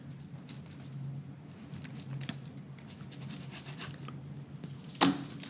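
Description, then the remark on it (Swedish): Steady soft scratching and rubbing of a pen writing in a guestbook, a continuous faint rasp with small strokes, ending in a brief sharper scrape near the end. No one speaks. “där kan du skriva någonting”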